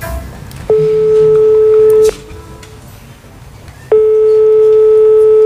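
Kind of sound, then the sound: signal or alarm, telephone call dialing tone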